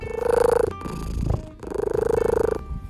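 A domestic cat purrs in two long, rumbling stretches, the steady rhythmic vibration easing briefly between them. No one speaks.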